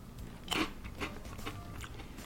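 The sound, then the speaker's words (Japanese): Crisp crunching of Piri Curry, a crunchy curry snack made by Tengu Seika of Kyoto, Japan, being chewed, with a loud bite near the start followed by a series of softer, irregular crunches; no talking. “ちなみに今日買ってきたのはねこれ天狗製菓京都ジャパンですよ京都の方のソウルフードなのかしらと思ってるんですけどねもし京都の方聞いていたら「あ天狗のピリカレーね」って反応したら是非教えていただきたいんですよまあその前にちょっといただきます咀嚼音ありますよ”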